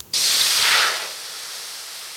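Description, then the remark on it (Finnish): A grill cooking burgers sizzles with a loud, steady hiss that kicks in abruptly, swells for a moment, then settles into a softer, continuous crackle. No voices are heard. “Grilli sihisee jo, joten otetaan pidemmittä puheitta päivän vieraslauteille.”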